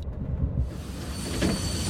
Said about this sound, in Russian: Она среди разговора не заметила, как поезд замедлял ход. Сквозь запотевшие стекла показалась ярко освещенная станция, поезд стал.